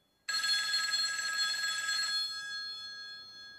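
An old-style telephone bell rings loudly, a bright metallic jangle that starts abruptly, rattles for about two seconds, then leaves a shimmering ring decaying away.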